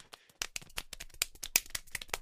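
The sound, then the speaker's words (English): A quick, uneven run of hand claps, about a dozen sharp smacks in two seconds, varying in brightness and loudness as if different clapping styles are being tried, with no talking. “Yeah, this is all the different kinds of claps.”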